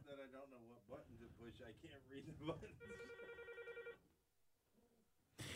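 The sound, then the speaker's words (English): A telephone rings once in a short, buzzing electronic trill lasting about a second, right after a stretch of a man talking; a brief burst of noise follows at the end. “And hey, at least the one thing about it, they hear the phone ring and they know we got people listening to the show.”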